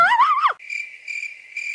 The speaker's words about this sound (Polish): Takie powinny być świerszcze teraz.